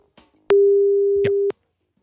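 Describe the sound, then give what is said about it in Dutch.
A phone line's ringing tone as a BNR radio presenter places a call to a programme manager at Sivon: one steady, mid-low beep lasting about a second, loud and unbroken, framed by faint clicks before and after. “Nou, laten we eens even gaan bellen.”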